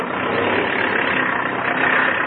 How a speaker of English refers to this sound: I've got the brakes set, and everything's out that could be taken out. All right, turn, uh, turn that engine up a little faster there,